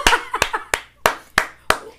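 Six sharp, evenly spaced claps in a steady rhythm, like a short burst of applause, with faint voice-like sounds murmuring between the first few claps.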